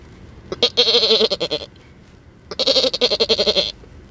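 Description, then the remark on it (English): A voice imitates a goat, giving two loud, wavering bleats about a second long each, separated by a short pause, with no other talking. “So let me give you a final sound.”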